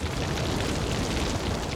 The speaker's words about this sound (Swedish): Det är väldigt högt ljud av en brand, det tänker man inte på. Alla har väl nästan suttit vid en brasa någon gång. Det kan ju låta en del. Tänk dig det fast ett helt hus som är helt övertänt.